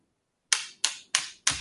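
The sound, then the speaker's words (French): A cat makes noise in the background: four sharp, scratchy bursts in a steady rhythm, each fading quickly, with no talking. “C'est quoi ce truc qui fait beaucoup de bruit en arrière-plan”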